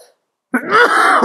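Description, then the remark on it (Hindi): A man in Delhi, during severe air pollution, clears his throat with a rough, gravelly rasp that shades into a short cough, fairly loud, after a brief silence. “जिस तरह मैं खांस रहा हूं आधे से ज्यादा दिल्ली वासी खांस रहे हैं नेबुलाइजर के भरोसे हम अपनी जिंदगी को आगे बढ़ा रहे हैं”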